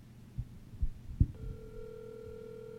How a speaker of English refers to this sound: Call Chip Chantry. Calling Chip Chantry. Mobile.